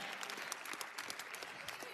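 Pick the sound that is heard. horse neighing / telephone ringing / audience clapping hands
audience clapping hands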